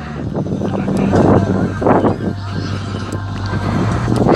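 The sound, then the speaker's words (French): Strong wind buffets the microphone in loud, rumbling gusts that swell and ease over a few seconds, with a steady low hum running underneath throughout. “J'essaye de faire en sorte que le vent soit apaisé, mais je verrai ce que ça donne.”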